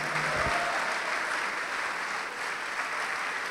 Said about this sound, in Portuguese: Olha só, vamos aplaudir mais, vamos aplaudir mais.